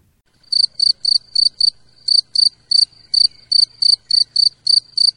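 A field cricket chirps by rubbing its wings in a steady, rhythmic series of about fourteen short, high-pitched pulses, clear with no voices, over a faint low background hum.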